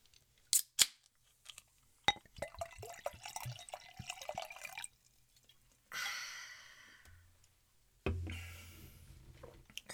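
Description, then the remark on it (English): A couple of sharp clicks as a beer bottle is opened, then beer glugs and splashes into a glass, with a fizzing hiss and a second pour. Clear, and no one speaks. “So, just needed to pour a glass, open some beer,”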